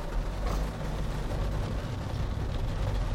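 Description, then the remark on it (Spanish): Steady rain drums on the roof of a car moving slowly in motorway traffic, heard from inside the vehicle, a dense continuous patter over a deep low rumble, loud and unbroken throughout with no voices. “Madre mía, voy a llegar tarde el primer día porque está lloviendo, que seguramente lo escucháis.”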